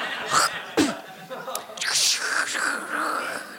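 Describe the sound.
A voice mimics a couple of sharp, sputtering spit sounds, then a longer rushing, gurgling whoosh imitating a toilet flush, moderately loud.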